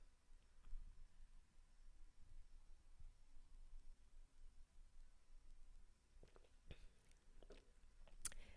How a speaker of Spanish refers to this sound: Así es que denme un minutito que yo me voy a dar un traguito de vino.